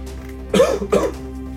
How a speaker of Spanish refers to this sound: Me, llegó a, llegué a toser.